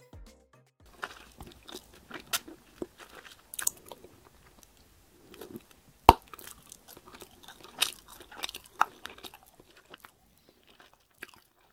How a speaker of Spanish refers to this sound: Les regalo un momento a SMR masticando chicle. Veamos si resulta.